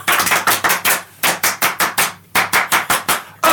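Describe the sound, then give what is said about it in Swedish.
A group gives a 'French applause', clapping in unison in quick rhythmic bursts to a count of 'un, deux, trois', several sharp loud claps per burst separated by brief pauses, with no voices. “Hörrni, kan jag få utbringa en fransk applåd”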